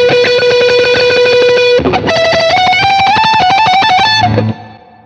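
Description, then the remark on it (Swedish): Loud distorted Telecaster electric guitar through an amp pedal: one long sustained note, then a quick run of rising picked notes before it cuts off abruptly. No voices. “nu spelar vi tele här, men det här smället i, i attacken liksom.”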